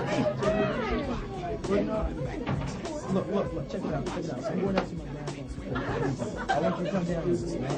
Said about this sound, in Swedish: Och jag kommer faktiskt göra så här att jag ska klippa in lite mumlet här nu så att ni får höra hur det låter. Så här låter det.